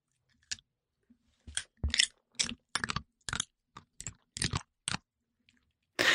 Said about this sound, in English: Just leave you with the greatest sound of all time, which is my dog eating a corn chip.